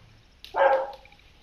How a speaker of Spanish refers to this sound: Se escucha un perro, por cierto. Sí. El perro respondiendo. Querrá cagar, a lo mejor. Está respondiendo.